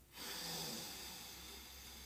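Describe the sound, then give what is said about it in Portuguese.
A single long, airy breath as part of a breathing exercise done before sleep, inhaling through one nostril and exhaling through the mouth: a steady hissing rush of air that swells quickly and then slowly fades over about two seconds, with no talking. “Puxa com uma narina, solta com a boca.”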